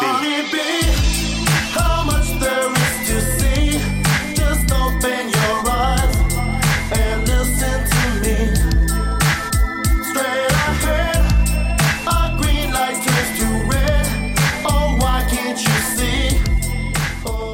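A 1997 hip-hop cover of a pop-rock song by a hip-hop duo from Kaiserslautern, Rhineland-Palatinate, Germany, plays loud, with a heavy, steady bass beat and punchy drum hits driving under a dense, bright mix throughout.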